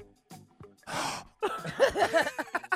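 A single sharp, breathy gasp rushes in, loud and close, then gives way to a string of voiced vocal sounds, like muffled laughter or exclamations.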